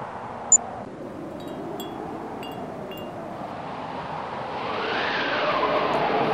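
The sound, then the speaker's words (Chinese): Howling wind roars in from afar, a steady, broad rush that swells and grows louder toward the end as it approaches, with a brief high chirp early on and a few faint tonal whistles in the middle. “远方的风开始呼啸，风声由远而近，夹带着一个极细密的声音。”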